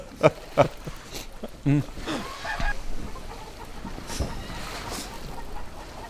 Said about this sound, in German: Die Hühner sind aber auch laut und der Hahn.